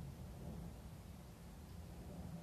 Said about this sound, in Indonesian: yaitu suara pesawat eh ada suara pesawat sama suara petir bersamaan itu gimana ceritanya